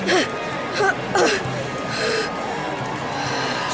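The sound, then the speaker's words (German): A few short, breathy inhales and exhales, sharp and slightly snorting, as a person breathes deeply in and out, followed by a quieter stretch of background noise. “Einmal tief ein- und ausatmen.”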